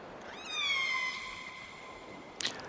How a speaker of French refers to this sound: Un orque.